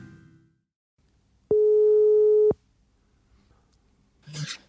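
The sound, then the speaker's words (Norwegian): A single steady telephone ringing tone sounds for about a second, loud and clear against near silence, as an outgoing call to the sponsor NDV Sport in Voss connects, followed by a brief faint noise. “ringer her til vår nye sponsor.”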